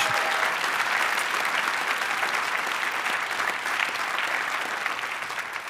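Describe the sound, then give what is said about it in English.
A crowd at Life Church applauds steadily to thank God for Pastor Craig and Amy Groeschel and the church team, a dense, bright wash of many hands clapping at once that holds at an even loudness for several seconds without pause. “Would you clap your hands and thank God for Pastor Craig and Amy Groeschel and the team here at Life Church?”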